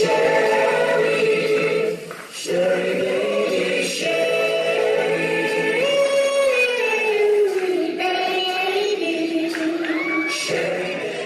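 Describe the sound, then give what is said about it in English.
A phone recording of a symphony concert: full orchestral music with sustained, layered string and wind tones, swelling and shifting steadily at a loud, even level, with no talking. “I snuck a, a, a, my phone into this place and recorded the concert.”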